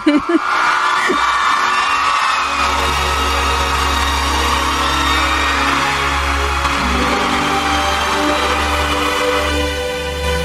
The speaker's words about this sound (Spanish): Aplausos, merecidos, por favor.